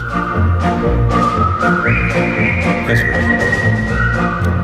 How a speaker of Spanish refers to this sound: los de … están silbando, en tono de cuidadín, el puente sobre el río Kwai